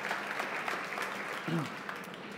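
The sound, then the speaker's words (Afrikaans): An audience applauds in a steady, dense patter of many hands clapping at moderate volume, with a brief murmur of voices underneath. “Geef hulle lekker hande klap help toe.”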